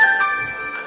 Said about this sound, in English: that's the doorbell and stuff.